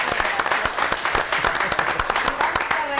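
Audience applause fills the whole stretch, a dense, steady patter of many hands clapping at even loudness, with a few sharper individual claps standing out and no talking over it.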